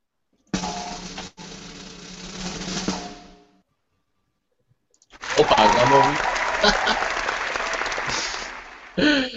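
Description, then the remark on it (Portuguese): Two bursts of dense, crackling applause at an awards announcement, after Pikmin 3 is named best strategy game: the first lasting a few seconds, then a pause before a louder, longer round mixed with voices and laughter, ending in a brief final burst. “Claro, merece aplausos.”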